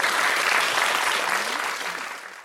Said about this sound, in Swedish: Det var värt en publikapplåd.